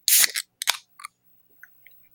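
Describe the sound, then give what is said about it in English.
A sharp crack and a short fizzing hiss as a can of Dr. Pepper Zero Sugar is opened, followed by a second burst and a few soft, faint clicks and slurps as it is sipped. “Uh, but since that's not going to make a lot of noise, I uh, have this Dr. Pepper Zero Sugar to sip on as well, so I will uh, fully affect us.”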